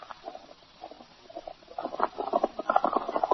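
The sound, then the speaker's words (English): Rapid, rhythmic hoofbeats of a single horse galloping fast along the other side of a stream, faint at first, then growing louder toward the end, with no voices. “Sounds like one horse traveling fast.”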